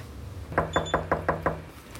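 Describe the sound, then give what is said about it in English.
Six quick, evenly spaced knocks on an apartment door in a carpeted, dimly lit hallway, fairly loud, with faint high-pitched electronic beeps briefly sounding over the first couple of raps. No one speaks. “We walked down a carpeted, dimly lit hallway to his door. We knocked twice.”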